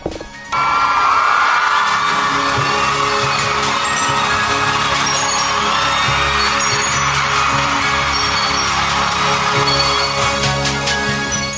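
A crowd bursts into loud, sustained applause with cheering and whoops, a dense wash of clapping that starts abruptly and keeps going steadily for over ten seconds.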